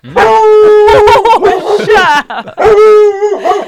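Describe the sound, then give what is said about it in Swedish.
A dog lets out a loud, rapid string of high yips and whining barks, pitch rising and falling, with a brief pause before another burst. “Men vad är det vi ska höra för mer idag förutom eh, hundljud?”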